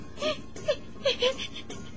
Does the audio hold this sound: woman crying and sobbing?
yes